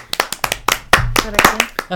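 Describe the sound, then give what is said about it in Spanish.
Brisk, uneven hand clapping, a round of applause as an honourable mention for Onza Indie, a business in Indianapolis, Indiana, fairly loud, with sharp claps scattered across two seconds while a voice talks over it. “Una mención honorífica y un fuerte aplauso.”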